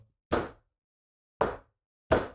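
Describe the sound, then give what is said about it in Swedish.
A voice imitates a bird knocking against a window at about five to six in the morning: three sharp, percussive taps, evenly spaced and fairly loud, each ending in a short decay, with a fourth just starting at the end. “Någonting som slår mot fönstret.”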